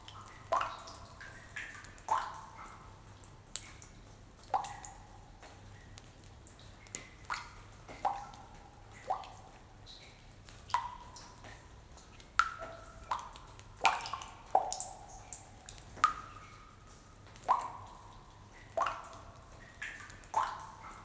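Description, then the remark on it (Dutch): Water drops fall one after another in an irregular rhythm, each a clear plinking drip with a short ringing tone, fairly distinct against a quiet background with no voices. “Stel je voor dat jij die grot bent en dat je bij het vallen van de druppels loslaat wat je kwijt wilt.”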